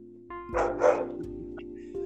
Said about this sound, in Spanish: Bueno, escucho unos perros, no sé.